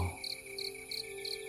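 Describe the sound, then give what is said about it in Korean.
A cricket chirps on a summer night in a steady, evenly spaced rhythm, four bright trills in quick succession over a faint, constant background hum, with no voices present. “희미하게 귀뚜라미가 울고 있어요.”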